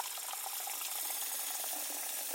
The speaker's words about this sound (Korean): 몇 발자국만 디디면 바로 싱크대였다. 찬장에서 라면을 꺼낸 뒤 냄비에 물을 받아